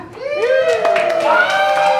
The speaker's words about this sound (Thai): วิทยาลัยบริหาร ธุรกิจและการท่องเที่ยวกรุงเทพนะครับผมขอเสียงปรบมือวิทยาลัยเราหน่อยครับ